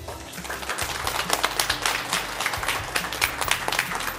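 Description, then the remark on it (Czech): An audience at a public recording of Czech Radio (Český rozhlas) in Hradec Králové applauds steadily for several seconds, many hands clapping in a dense, crackling wash with a few sharper individual claps standing out. “A že tu jsou a není jich málo, to vám teď dokáží tím, že nám zatleskají”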